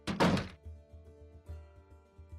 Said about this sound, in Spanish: Y sin darles tiempo de explicarse, le cerró la puerta en la nariz.